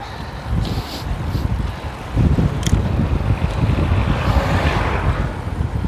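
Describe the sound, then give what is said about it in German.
A car passes cyclists on a slightly uphill road lined with sand and grass tufts, its engine and tire noise swelling and fading under heavy, steady wind rumble buffeting the microphone. “So, jetzt kommt das Auto auch vorbei.”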